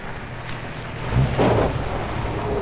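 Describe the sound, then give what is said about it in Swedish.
A low vehicle rumble swells up out of steady wind-like background noise, growing louder midway as a car approaches along a narrow forest road, then holding at a moderate level; no one speaks. “Men vad i hela friden? En bil.”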